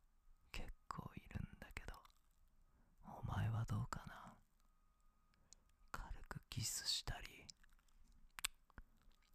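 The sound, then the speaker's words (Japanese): Wet licking and mouth sounds of a tongue licking the outer rim of an ear come in several soft bursts separated by short pauses, with faint whispering mixed in, very intimate. “性感帯なんだよ耳って性的快感を得るための神経が通ってる例えばこの耳の外周ここ舐められると弱いか”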